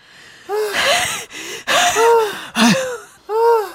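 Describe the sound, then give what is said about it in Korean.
Heavy, labored panting in four loud breathy bursts from coworkers climbing Gangcheonsan mountain on a company outing, each gasp carrying a strained, moaning pitch that rises and falls almost like wailing, with no talking. “거친 숨소리가 곡소리처럼 울려 퍼졌는데요.”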